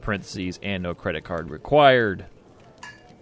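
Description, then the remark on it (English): A man talks, then right after he stops, a single bright metallic clink rings out as a cat knocks an object into a small metal Yeti cup used as a whiskey glass, briefly resonating before fading. “He just knocks something into my whiskey glass, which happens to be a small Yeti cup that's metal.”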